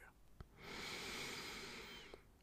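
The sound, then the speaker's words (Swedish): A small dog snorts, one long, airy, breathy burst lasting over a second, soft and somewhat distant, with a couple of faint clicks around it and no one talking. “Ja, det fick jag bekräftelse av utav en av våra två små hundar som finns här när jag spelar in.”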